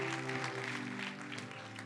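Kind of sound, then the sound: crowd, audience applauding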